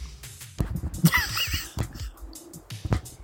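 A few heavy, close-up thumps knock against a microphone at irregular intervals, each a dull, boomy impact with brief rustling in between.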